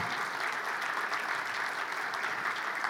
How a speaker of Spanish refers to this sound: ¿Podrían ponerse de pie? para darle un aplauso a Dios por sus vidas, su esposa, su hija, su hijo.